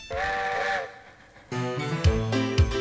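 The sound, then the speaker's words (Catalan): A steam train whistle gives one sustained, fairly loud blast as the train departs, then fades and a music track kicks in with punchy drum hits and bass. “així que apanya't, que el tren ix.”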